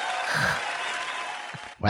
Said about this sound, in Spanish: he dejado ahí un aplauso para que. Para que se lo pongas. Para que se anime para el próximo.